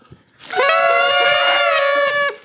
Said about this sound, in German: Die Träten, Tröten oder Träten, wie sagt man dazu? Tröten. Tröten. Wir können Sie mal kurz horchen, ob es da funktioniert.